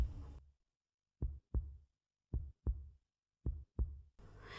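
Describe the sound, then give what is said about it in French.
A man's heartbeat of three distinct double thumps, each a deep lub-dub, evenly spaced, with short bursts of noisy hiss at the very start and end. “C'étaient les battements de son cœur qu'il confondait avec un bruit extérieur.”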